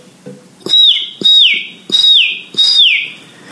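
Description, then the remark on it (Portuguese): A baby chick peeps four times in a steady rhythm, each high, thin call sliding downward in pitch, loud, with soft low thumps between the peeps; the chick is inside a box. “Ouvindo o barulho ficou bem mais fácil e o Tetel gritou: Eu sei, papai! Eu sei! É um pintinho!”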